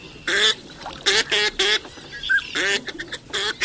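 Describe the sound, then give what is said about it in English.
Snow geese and ducks call in a loose, irregular series of loud, nasal honks and quacks, with short gaps between bursts and no talking, at a spring stopover on the Central Flyway migratory route. “In recent years, the number of snow geese stopping in the region during spring has risen dramatically to more than 3 million birds.”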